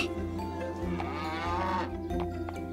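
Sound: cow mooing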